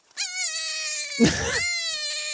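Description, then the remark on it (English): A dying rabbit's distress scream: one long, piercing, high-pitched wail that wavers slightly, breaks into a harsh rasping burst midway, then steadies again. It is loud and there is no talking. “That's a dying rabbit. This is a dang rabbit noise.”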